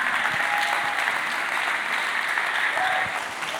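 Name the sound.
audience clapping hands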